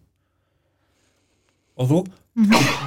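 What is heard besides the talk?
sneeze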